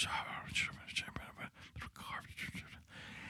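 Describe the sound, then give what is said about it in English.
Breathy whispering fills the few seconds, a hushed voice murmuring in soft unvoiced bursts with brief pauses, intimate, as someone whispers into a person's ear. “Somebody told me that you, the one listening right now, committed a crime, and they whisper in my ear,”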